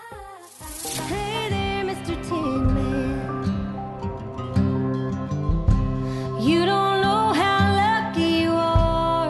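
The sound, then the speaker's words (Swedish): A gentle country song topping the charts in the USA, with a woman singing a slow, tender melody over soft acoustic accompaniment, playing steadily and clearly at moderate loudness throughout. “I've been finstämd countrytopp i USA och de älskar det där.”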